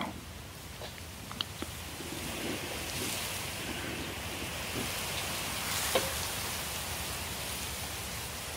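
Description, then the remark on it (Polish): A dense, steady roar of wind mixed with a rain-like hiss, swelling slightly toward the end like weather building into a storm, with a few faint knocks and no voices. “Po chwili wiatr przemienia się coraz bardziej w burzę.”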